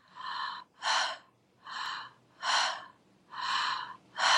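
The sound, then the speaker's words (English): Rapid, continuous circular breathing in and out through the mouth with no nasal breathing, each inhale flowing straight into an exhale with no pause, about six airy breaths in a steady rhythm, fairly loud with no talking. “You're breathing in and out through the mouth.”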